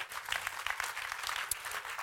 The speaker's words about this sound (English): yeah, I think it's a good place to clap for Jesus.